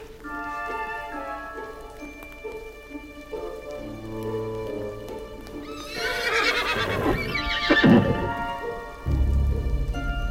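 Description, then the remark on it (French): A horse gives a loud, shrill whinny midway through, with clip-clopping hooves and a patter like rain beneath a steady, droning tonal background. No one speaks. “posséder une médaille de Saint-Benoît appelée Croix des sorciers pour contrôler le cheval ensorcelé, ce fameux cheval maléfique.”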